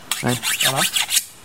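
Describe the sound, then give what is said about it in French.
An eco-guide's file rasps across his machete blade in several quick back-and-forth strokes, harsh and bright with a faint metallic ring, then stops after about a second. “Je suis juste en train de limer ma machette, parce que je me rends compte qu'elle ne coupe plus assez.”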